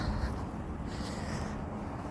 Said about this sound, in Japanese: あ車か